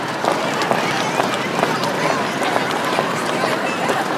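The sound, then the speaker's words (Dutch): Many feet stamp on a floor in a steady, fast rhythm, fairly loud, with a busy wash of group noise and voices underneath, as a group acts out anger by stamping. “En voel het even hoe lekker dat is te stampen.”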